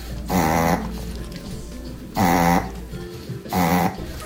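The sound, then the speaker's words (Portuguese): A dog reverse sneezing: three loud snorting honks, each about half a second long, separated by short pauses, with no talking. “E eu andei pesquisando um pouco e eu vi que parece que é espirro reverso.”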